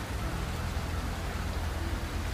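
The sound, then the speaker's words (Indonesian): Steady rain falls continuously, a dense, even hiss with a low rumbling undertone and no pauses or voices, fairly loud throughout. “Bahwa aku sangat menyukai hujan kala senja meski sebenarnya ini cukup kontradiktif.”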